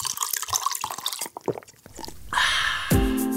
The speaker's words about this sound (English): Welcome to Comments Over Coffee, where you'll learn how to get better at YouTube and online video over a cup of coffee. Pour a cup for your host